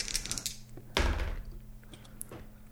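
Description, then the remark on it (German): Dice rolled across a desk to decide a winner between two people: a few light clicks, a solid thump, then a faint rattle and a couple of scattered taps, with no talking. “Dass ich Platz zum Würfeln hier habe auf dem Schreibtisch.”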